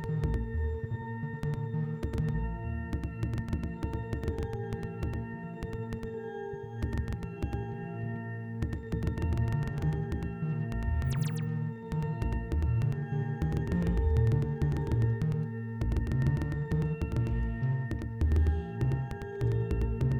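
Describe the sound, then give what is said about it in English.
A synthesizer oscillator on a Klavis module drones continuously with its VCA off, without fading: layered steady electronic tones with a shifting, warbling low end and occasional clicks, fairly loud and alone for the whole stretch. “Honestly, That's why I didn't have the VCA on on the Klavis. That's why it sounds so weird.”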